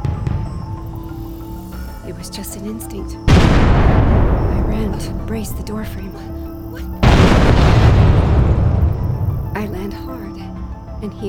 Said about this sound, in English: rips the door from the frame. I scramble out of the way as this huge door, my own front door, comes crashing down on me.